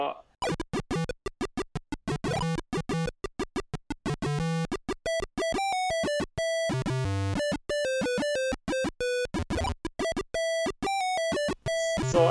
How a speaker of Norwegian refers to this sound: det er ganske utrolig hvor bra det er til å være PC-speaker.